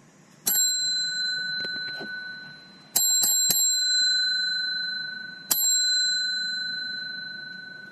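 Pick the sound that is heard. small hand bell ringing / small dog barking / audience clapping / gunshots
small hand bell ringing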